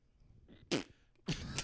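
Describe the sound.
Two short, raspy fart noises sound fairly loud, the second following the first after a brief pause, with no talking.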